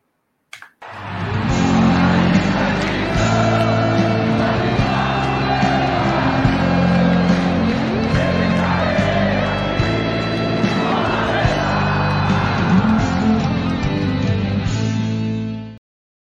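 A loud, energetic intro jingle of a YouTube live show plays for about fifteen seconds, with a steady heavy bass and dense layered music, crowd-like cheering mixed in, then cuts off abruptly.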